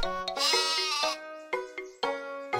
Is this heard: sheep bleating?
yes